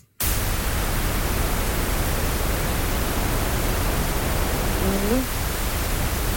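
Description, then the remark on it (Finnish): A loud, steady wash of pink noise begins abruptly and holds at constant level, a broad rushing hiss with weight in the lows; a brief faint voice murmurs underneath near the end. “Otetaan ensin tämä pinkki. Tämä tulee nyt varmaan aika kovaa.”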